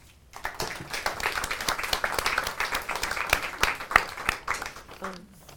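An audience breaks into sustained applause, many hands clapping in a dense, steady patter that swells quickly and holds for several seconds before fading out, with faint voices underneath.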